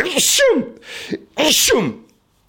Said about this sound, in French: Je vais éternuer.